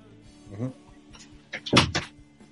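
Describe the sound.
A door is pushed shut, with a short burst of scraping and a couple of solid thuds and a latch click, preceded by a faint voice-like murmur.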